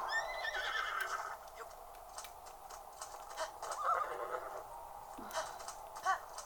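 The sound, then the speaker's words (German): A horse whinnies with a shrill, wavering neigh, followed by snorts and scattered clopping hooves amid faint background noise; no one speaks. “Oh, armes Pferd.”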